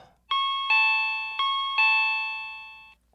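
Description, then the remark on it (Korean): An electronic doorbell at an upstairs apartment, pressed by a downstairs neighbour, chimes four times in quick succession, bright sustained tones ringing out and decaying together at the end, clear with no one talking. “저는 천둥 소리보다 더 심하게 들리는 제 심장 소리를 들으며 떨리는 마음으로 위층에 올라가 배를 눌렀어요.”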